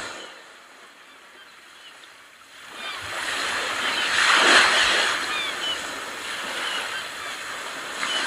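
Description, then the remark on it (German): Ocean surf swells up after a quiet start, a wave breaking and washing in with a broad rushing hiss, while faint seagull cries drift in the background. No one speaks. “Lasst euch noch ein bisschen berauschen hier von diesem Meeresrauschen und dem Möwengesang”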